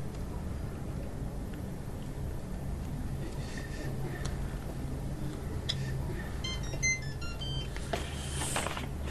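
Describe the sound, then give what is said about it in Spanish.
A cell phone text message notification tone plays a brief run of high, quick electronic chirps, moderately loud, over a steady low background rumble, with no one talking. “Recibe un mensaje de texto en su celular, invitándolo a una fiesta esa noche.”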